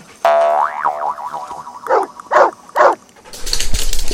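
A springy, wobbling boing like a thrown ball bouncing, followed by three short dog barks in an even rhythm as the dog fetches the ball, then a burst of scuffling noise. No one speaks.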